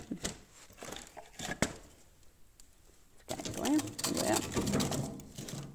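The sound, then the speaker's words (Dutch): Wood is loaded into an open fireplace as it is refilled, starting with a few sharp knocks and clunks, then a busier stretch of scraping, rustling and clattering, with a faint voice in the background. “Om eens te kijken hoe je het geluid hoort van die open haard nu. Die ik bijvul.”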